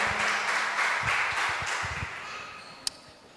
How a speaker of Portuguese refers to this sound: Você pode aplaudir ao Senhor em nome de Jesus?